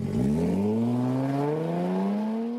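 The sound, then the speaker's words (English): The engine of a Jaguar E-Pace compact SUV revs up, its pitch climbing smoothly and steadily over a couple of seconds, loud with no voices present. “For those that don't do popular choices, the Jaguar E-Pace, a compact SUV with sports car DNA.”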